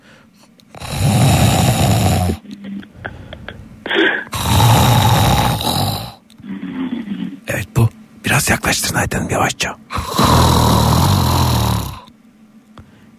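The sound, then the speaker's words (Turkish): A man, a woman's husband, snores loudly, three long rasping snores at a steady interval, while a voice speaks quietly in the pauses between them. “Ayten Hanım'ın e, kocası horluyor. Bakın e, düzenli bir ses duyuyoruz.”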